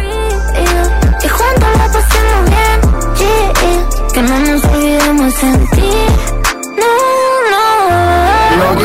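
A pop song plays loud and close, with a sung vocal melody gliding over a steady punchy beat and bass, briefly dropping out near the end before continuing.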